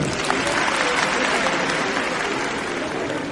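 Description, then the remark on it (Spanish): Sustained applause from an audience at an awards ceremony in Casanare, a dense, steady wash of many hands clapping at an even loudness for the full few seconds, with no voices standing out. “El aplauso del respetable.”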